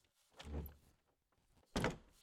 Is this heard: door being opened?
yes